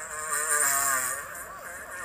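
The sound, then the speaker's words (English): A sulcata tortoise's mating call: a single drawn-out, buzzy, strained groan that holds steady for about two seconds, with no talking. “Deep mating sound from Sulcata tortoise.”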